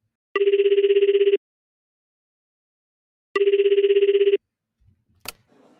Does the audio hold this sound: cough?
no